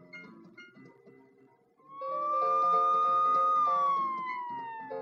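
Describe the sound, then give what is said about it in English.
A fire engine siren rises in with a loud, steady high wail, holding its pitch before sliding slightly downward, with a faint rumble of traffic underneath. “Look, here comes a fire engine.”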